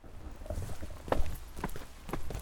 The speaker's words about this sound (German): Das Airbnb ist nicht direkt im Stadtzentrum Edinburgh, aber auch nicht so weit vom Stadtzentrum entfernt. Wir sind gerade auf dem Weg dahin. Das hier sind unsere Schrittgeräusche.